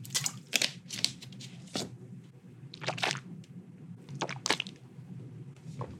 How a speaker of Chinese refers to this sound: 但是如果有人跟我一样的话，叮咚叮咚的话，麻烦你们跟我说，就是喜欢喝水，然后从牙缝挤出来。好，我们现在来示范一次这个声音，ASMR。